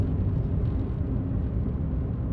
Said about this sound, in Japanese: 風も妙に強いな新潟市昨日あたりも風強いなって思ったけどね何なんですかねこの風の強さは聞いてないけどね